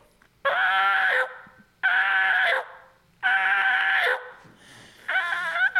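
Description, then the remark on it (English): A person imitates a turkey yelp with the mouth, letting air through and closing the lips at the end to cut it off while dropping the jaw: four loud, raspy, high-pitched yelping calls in a steady rhythm, each clipped off abruptly, with short silences between and no talking. “So he's letting the air go through the yo, and then at the end you close your lips to cut it mm-hmm. off, and it gives it the yelp, yelp.”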